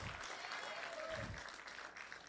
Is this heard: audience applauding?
yes